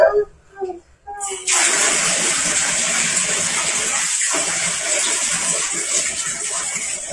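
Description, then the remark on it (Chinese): Water pours steadily into a bathtub as more water is added once it is no longer too hot, a loud continuous hiss and rush that starts abruptly after a brief moment of quieter sound and a voice, then runs on unbroken. “来，现在不烫了，再放点，再放点水。”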